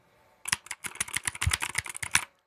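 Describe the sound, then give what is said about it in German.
Rapid, clattery typing on a newly bought mechanical keyboard used for typing practice, a dense run of sharp clicky keystrokes for about two seconds, fairly loud, with no voices. “Ich habe mir eine mechanische Tastatur gekauft, weil oh, ich doch jetzt oh.”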